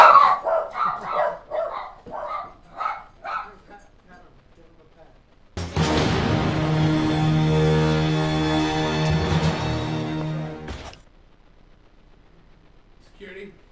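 Dogs bark in a quick, uneven series of about ten yaps over five seconds, followed by a loud, steady, buzzing electronic alarm tone that holds for several seconds before cutting off.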